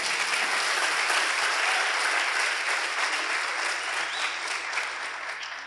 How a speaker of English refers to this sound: Um, did we clap for them? Can we clap for them?